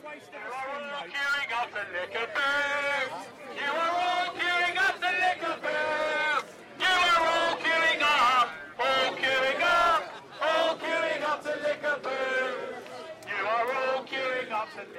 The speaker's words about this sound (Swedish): Gulklädda Eh, gula plakat som det stod “Not my king” och så höll de ju på att skandera och ropade det när folk gick förbi. Eller, folk gick ju förbi hela tiden. De hördes ju och de syntes, verkligen.